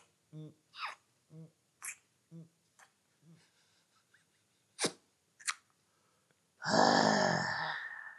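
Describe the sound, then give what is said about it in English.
A run of short, rhythmic mouth sounds made by sucking on a thumb to imitate gulps of drinking, followed by two sharp wet sucking clicks, then a loud breathy burst to finish. Fairly loud, with no talking. “But then and then you bring it to your mouth and you actually suck on your thumb to depict drinking.”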